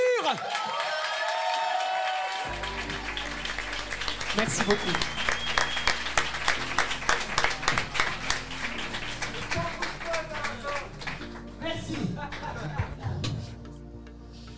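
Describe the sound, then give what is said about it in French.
An audience breaks into sustained applause for a guitarist after a song, dense rapid clapping mixed with some cheering and a bit of laughter, while a voice briefly speaks over it near the start. “Veuillez applaudir très fort à la guitare.”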